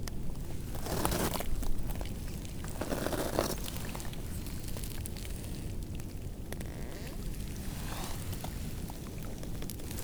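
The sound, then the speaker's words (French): Lake water turning to ice makes a steady, fine crackling and fizzing, a dense patter of tiny ticks and crinkles with a few louder bursts, with no voices. “Je m'approche pour enregistrer ce petit bruit presque imperceptible de l'eau qui devient glace.”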